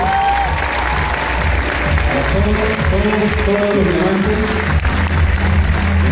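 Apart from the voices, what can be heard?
audience applause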